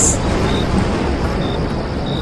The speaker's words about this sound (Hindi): उसके बाद ही जोर की बिजली कड़की और पूरे कमरे में पल भर के लिए रोशनी फैला गई बाहर से आवाज आई एक जोरदार बादलों के गरजने की आवाज